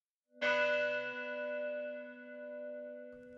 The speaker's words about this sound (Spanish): Vamos a sonar las campanas cada hora para que sepan qué hora es. Para que no se les olvide. Claro, y luego vamos a sonarla varias veces antes de cada servicio, de cada servicio eclesiástico, de cada misa, pues.